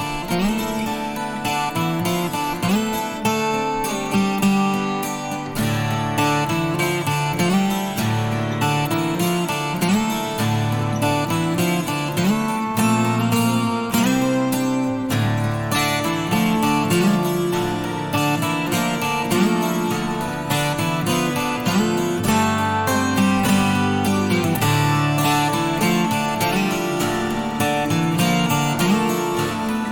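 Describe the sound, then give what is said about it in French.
Bright, shimmering twelve-string guitar music plays steadily for the full stretch, with rich ringing chords and a busy strummed rhythm at an even, fairly loud level, and no voices. “Sur des guitares 12 cordes, c'est capoté raide.”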